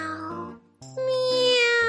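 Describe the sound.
A human voice imitates a cat's meow: two drawn-out, tonal mews with rich harmonics, the second rising in pitch and held longer, fairly loud with no other talk.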